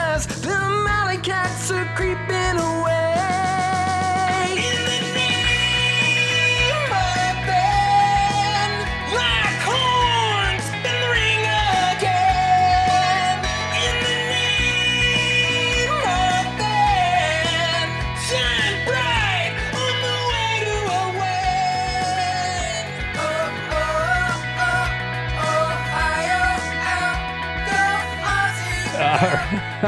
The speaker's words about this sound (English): A song screams out on the Fox Airwaves.